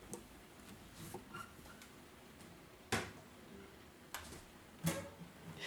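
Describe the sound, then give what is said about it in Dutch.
Another guitar is picked up and handled, with a few irregular sharp clicks and soft knocks over quiet background noise and no one speaking. “Dit is het geluid van ik die een andere gitaar pak en niet te lui is om dat uit de podcast te knippen.”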